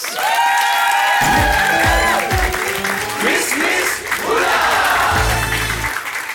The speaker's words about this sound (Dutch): Geef haar een daverend applaus.